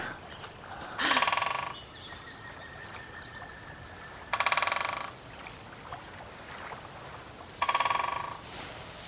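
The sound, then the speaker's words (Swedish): A woodpecker drums on a tree in three separate rapid bursts, each a fast rattle of knocks lasting under a second, spaced a few seconds apart against a quiet outdoor background. “Kolla hackspetten. Ser du? Fan, att de inte blir dum i huvudet av att sitta och knacka sådär på trädet.”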